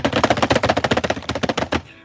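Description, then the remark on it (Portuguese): Fast, frantic keyboard typing: a dense, rapid burst of loud clacking keystrokes for almost two seconds, ending with a few harder hits before stopping abruptly. “Nossa, cara, o tema foi ele destruiu o teclado.”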